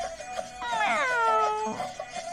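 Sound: cat meowing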